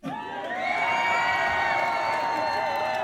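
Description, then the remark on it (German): A canned applause sound effect: a crowd cheering and whooping loudly, swelling within the first second and holding steady for about three seconds, with high sustained shouts over the crowd noise. “Habe ich Klatschgeräusch, haben wir Applaus hier.”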